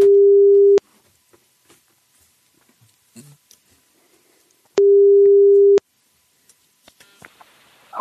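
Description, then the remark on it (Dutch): Two long steady telephone ringback tones, each about a second, separated by a few seconds of near silence with faint clicks and rustles, as an outgoing call to an 06 mobile number rings. “Ik zou wel een 06 bellen. Ja, dat doe ik. Komt hij aan.”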